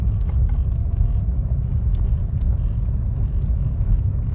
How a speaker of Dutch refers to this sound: Ehm, dus mocht je wat getikker horen, dan weet je dat het komt omdat ik dus in de auto zit.